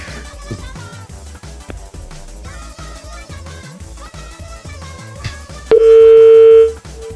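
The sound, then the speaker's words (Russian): Music plays for several seconds, then a loud, steady telephone dial tone cuts in near the end, holding for about a second before stopping. “А тут... телефон еще набирать надо.”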